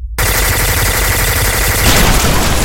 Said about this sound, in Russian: В следующий миг Другой спидер, словно коршун, спикировал вниз и расстрелял экипаж внедорожника.